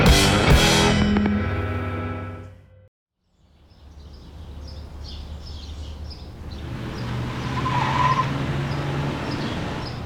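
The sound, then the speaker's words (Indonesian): A luxury sedan pulls up outside a wedding organizer office with a loud engine rumble and a short squeal of braking tires, then a brief silence gives way to steady outdoor ambience with faint bird chirps. “seseorang keluar dari mobil sedan mewah dan melangkah masuk ke sebuah kantor wedding organizer.”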